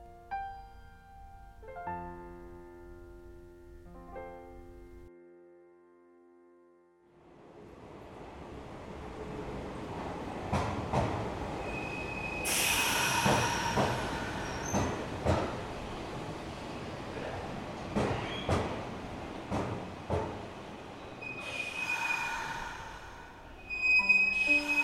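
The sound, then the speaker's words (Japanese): A Ban'etsu West Line train rumbles as it pulls into Inawashiro Station and slows, with scattered clanks and knocks and two loud, breathy hisses of air brakes as it comes to a stop, on a hot day. “磐越西線がふーっと一つ息をついて停車した猪苗代駅で降りる熱気が途端に汗を誘う”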